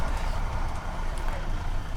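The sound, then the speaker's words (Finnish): A steady engine rumble from a 40-year-old bus, deep and continuous with a broad noisy hiss on top and no pauses or speech. “Sankarimme saapuvat lähelle kartanoa ja 40 vuosis bussit eivät ihan perille asti saavu, joten joutuvat kävelemään hieman pilvisessä säässä.”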